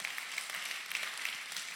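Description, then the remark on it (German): Steady audience applause, a dense wash of many hands clapping at once, fairly loud and sustained without pause, with no voices standing out. “Ja, meine, meine Mutter würde auf keinen Fall klatschen an der Stelle”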